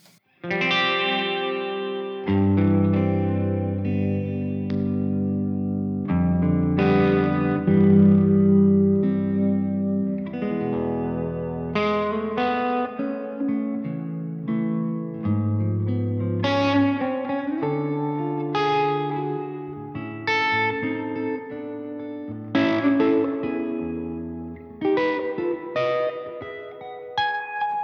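Electric guitar plays sustained chords and picked notes through a plate reverb preset, each attack blooming into a smooth, shimmering tail; steady, fairly loud, with no talking.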